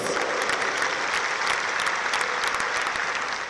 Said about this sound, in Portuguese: Você pode dar uma salva de palmas para Jesus?